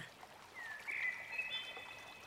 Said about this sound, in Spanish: A lo lejos observas un arroyo, un arroyo con agua.